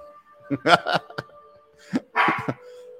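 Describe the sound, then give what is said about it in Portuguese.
A small female dog barks in two quick flurries of sharp, yappy barks, a few seconds apart, fairly loud, over a faint steady electronic hum. “Se eu não trocar, ela vai ficar latindo até o final do faca aí.”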